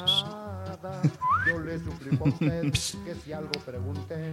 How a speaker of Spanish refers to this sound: Por ejemplo, el silbido, ¿no?